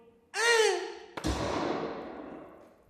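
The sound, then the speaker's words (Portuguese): A short rising whistle is cut off by the sharp, loud bang of a small projectile firecracker, whose crackling, hissy tail fades out over the next second or so. No voices. “Bombinha projétil!”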